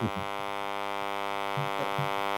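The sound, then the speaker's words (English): A phone buzzing with a notification: a steady, harsh, harmonically rich drone that holds unbroken for a couple of seconds, with a few brief low thumps underneath. “You're buzzing, Kyle.”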